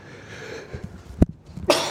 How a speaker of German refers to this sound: Gesundheit.